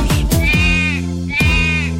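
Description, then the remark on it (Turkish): A lamb bleats twice, wavering cries spaced about a second apart, fairly loud over a steady musical backing, part of a Turkish children's song about Ali Baba's farm. “Diye meleşir çiftliğinde Ali Baba'nın”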